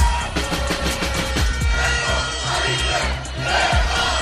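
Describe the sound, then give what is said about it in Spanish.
Thousands of protesters in Tel Aviv chant and shout together in the street against the judicial reform pushed by Prime Minister Benjamin Netanyahu, a loud, dense roar of many voices with rhythmic bursts and low thumping beats underneath. “Así se escucharon anoche las protestas eh, de miles eh, de personas en Tel Aviv en rechazo a la reforma judicial impulsada por el primer ministro Benjamín Netanyahu”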